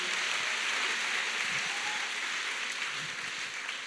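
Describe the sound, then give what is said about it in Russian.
Sustained applause from an audience, a dense, steady wash of clapping that stays fairly loud and even throughout with no one talking over it. “Дайте дадим большую аплодисменты.”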